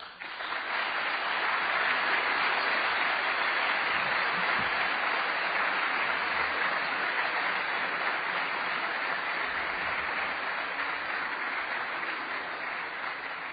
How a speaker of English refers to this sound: what you just heard about me, you don't really want to clap, admit it.